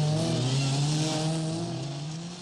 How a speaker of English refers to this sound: Here is the revolutionary Morris Mini Minor. See how easy the Morris Mini Minor is to park.